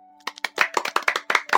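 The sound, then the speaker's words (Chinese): A short burst of applause welcoming a student who placed first in the Harbin Institute of Technology architecture history graduate entrance exam: a dozen or so quick, sharp hand claps in a fast, slightly uneven rhythm, fairly loud, with a faint steady hum underneath and no voices. “所以我们首先用这个热烈的掌声欢迎这位特别特别牛的学霸，好不好？”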